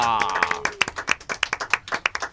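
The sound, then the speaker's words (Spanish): Applause from an audience welcoming guests from Borde Verde: a run of sharp, fairly regular hand claps in a quick steady rhythm, moderately loud, with a brief sustained voice or tone fading out at the start. “Los recibimos con un aplauso.”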